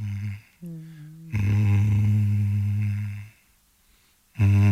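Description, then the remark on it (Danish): An old mobile phone buzzes against a table in loud, coarse bursts: a short buzz, a slightly higher one, then a long sustained drone, and after a pause another burst begins. “det lyder som mobiltelefon, der ringer på bordet.”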